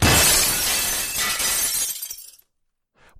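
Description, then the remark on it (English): A glass box is broken: glass shatters loudly, a bright crash of breaking shards that rings out for about two seconds before tapering into silence, followed by a faint clink. “It's a glass box um, that says, in case of emergency homework, break glass.”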